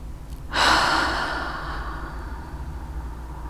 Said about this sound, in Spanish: quiero que en este momento cierres los ojos Toma una respiración profunda.